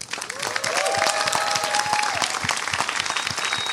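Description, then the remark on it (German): Steady, dense audience applause for guest Düzen Tekkal fills the whole stretch, many hands clapping at once, with a few faint whistles or cheers rising above it near the start. “Also äh, einen ganz, ganz großen Applaus für Düsen Tekal.”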